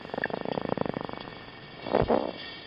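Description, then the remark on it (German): A gurnard fish purrs underwater in a rapid train of throbbing pulses, then falls quiet before a brief, louder whooshing swell. No one speaks. “unmissverständlich als Knurrhahn erkennen, einen Fisch”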